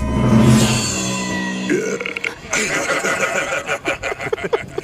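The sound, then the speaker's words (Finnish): Loud burps from the Leijonat (the Lions) in a zoo yard: one drawn-out burp rumbles for over a second, a second gurgling burp follows, then snickering laughter and scattered voices break out. “niin, Leijonat röyhtelee.”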